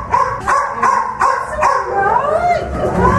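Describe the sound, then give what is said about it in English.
Several unwanted and stray dogs bark in the kennels of a Blue Cross rescue centre, a rapid string of loud, overlapping barks in the first half, then high yips and whines continuing. “This is where all the, the dogs, the unwanted, and the strays come in to the Blue Cross, and this is where we hope to change their lives around.”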